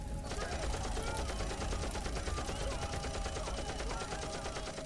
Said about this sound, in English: We hear a gunshot and yelling.